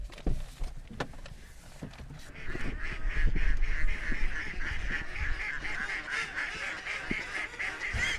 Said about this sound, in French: Ça, c'est des canards colverts là-bas, c'est des, des, canards siffleurs.